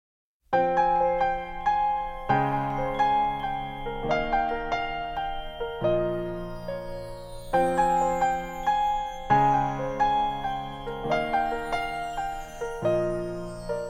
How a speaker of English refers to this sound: there are just some bells ringing that have been recorded and then just brought up in the mix